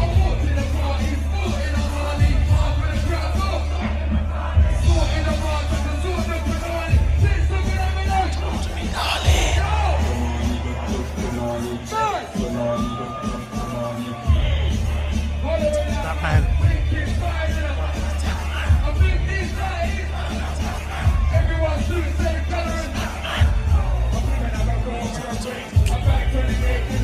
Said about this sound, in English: So it's good to see him still getting the love that he deserves, and obviously the crowd going really crazy when they fucking heard it because this song is still an absolute anthem.